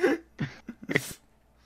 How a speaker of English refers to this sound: You you you you sniffing? Sniffing my stuff?